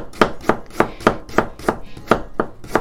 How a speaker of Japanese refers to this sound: 今人参切ってます。人参はちょっと、あのレンジなのでね、火が入んないといけないなと思って、ちょっと、あの細めに切ってます。